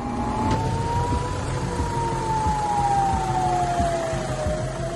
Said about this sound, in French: Samedi 7 octobre, le soleil se lève. Le calme règne dans les villes israéliennes qui bordent la bande de Gaza, au lendemain de la célébration de la fête juive de Soukhot. Soudain, les sirènes d'alerte hurlent.